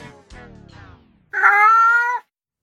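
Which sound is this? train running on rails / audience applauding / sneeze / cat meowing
cat meowing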